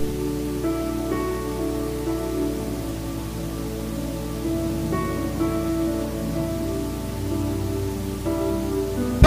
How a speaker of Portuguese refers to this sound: Se você crê nisso, aplaude bem forte a Deus, irmão.